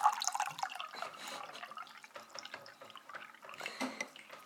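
Water pours and trickles, a steady splashy liquid sound with small drips and bubbles throughout, slightly louder at the start, with no voices.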